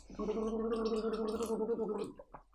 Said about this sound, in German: Ich muss mal, ich trinke mal einen Schluck Wasser zwischendurch